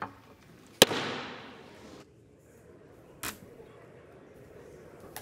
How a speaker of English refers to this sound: An angry gaveling down by the man named as Speaker pro tem, meaning he is the temporary Speaker of the House, that is Congressman Patrick McHenry, a Republican from North Carolina